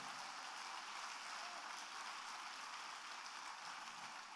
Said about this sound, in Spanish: Si te vas a dar un aplauso, dáselo fuerte.